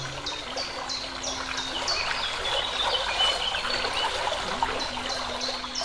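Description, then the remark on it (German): A spring in a desert oasis splashes and burbles steadily throughout, a continuous trickling of water, with faint, repeated bird chirps sounding high above it. No one speaks. “Und du hörst die ganze Zeit dieses Plätschern der Quelle.”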